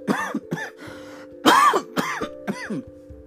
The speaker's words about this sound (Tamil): அப்பொழுது அவனுக்கு இருமல்